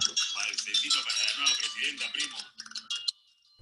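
A telephone rings with a loud, close, jangling metallic trill that rattles on for a couple of seconds, then breaks into a few shorter bursts before stopping.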